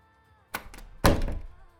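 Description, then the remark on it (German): A door closes upstairs: a light knock-like bump, then a heavier wooden thunk that rings briefly before fading. Moderately loud, with no one speaking. “Im Obergeschoss schließt sich eine Tür und damit verschwindet die Frau.”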